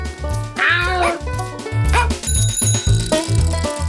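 A dog barks a few times in short, bright yelps over a steady, bouncy music track with a pulsing bass line and bell-like tones.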